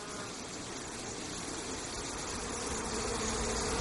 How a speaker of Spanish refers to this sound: Los furtivos, confundidos, escuchan cómo el zumbido de las abejas se acerca.